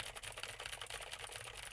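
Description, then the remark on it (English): Rapid, dense clicking of fingers typing on a keyboard mixed with light taps on a desk, picked up by a microphone on a boom arm to show how much desk and keyboard noise it catches; fairly quiet and steady throughout, with no voices. “I'll go ahead and tap the desk and type on the keyboard.”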